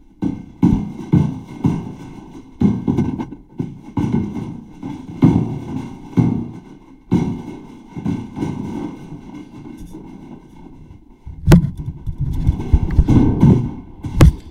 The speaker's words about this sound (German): wir doch mal jetzt diese Metallleiter hier in der Jeffreys-Röhre hoch.